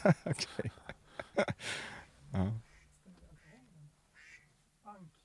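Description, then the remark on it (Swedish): A duck quacks in a quick burst of loud, raspy calls, followed by a few softer, scattered sounds as things quiet down. “Vad är det för det där bräkande? Anka.”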